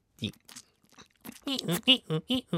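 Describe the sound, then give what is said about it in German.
A voice mimics a gecko's call, like chewing on a rubber mat, with wet, rubbery chewing and clicking noises, building into a quick series of five or six rhythmic, squeaky chirps, fairly loud. “Aber das, also Geckos machen ein Geräusch, wie wenn du auf ähm, so einer Gummimatte kaust.”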